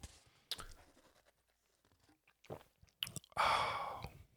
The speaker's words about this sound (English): Let's take a sip of coffee together and ponder this thought. Mm. Actually, maybe you can't hear it with the music.